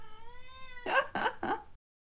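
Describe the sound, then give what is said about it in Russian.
A cat meows loudly: one long, drawn-out wail, then three short, harsh yowls in quick succession, with no one talking. “Кот, обязательно сейчас это делать?”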